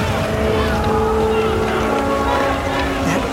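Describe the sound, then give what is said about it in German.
A Golf-class submarine surfacing through breaking ice, heard as a steady, loud mechanical rumble with droning engine tones and broad rushing noise throughout, with a voice talking faintly underneath. “Ihr werdet das nicht glauben, aber hier taucht gerade ein U-Boot auf und es ist tatsächlich ein U-Boot der Golfklasse.”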